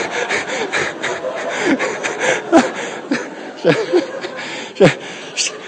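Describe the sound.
A voice imitates snoring with a run of rough, snorting breaths and gasps repeated irregularly, fairly loud, with no words spoken.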